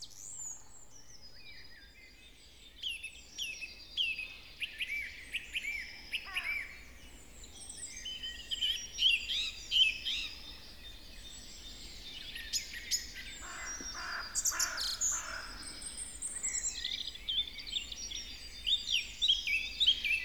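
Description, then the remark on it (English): A common starling sings a busy, rambling song of whistles, clicks and chattering chirps, continuous, over a faint low background hum with no talking. “the offer of refuge is an important protection measure for starlings, like nesting boxes in trees or old fashioned um, starling vases.”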